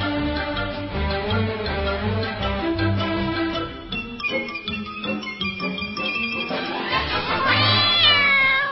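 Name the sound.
cat meowing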